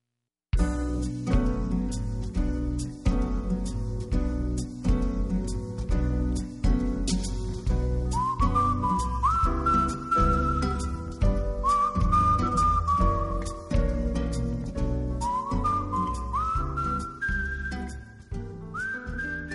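A recorded song plays with a steady full band, and a bright whistle-like lead melody enters partway through, rising and sliding above the music. No talking is heard.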